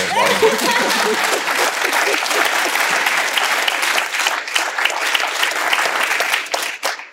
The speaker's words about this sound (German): Also da hätte ich gerne Applaus.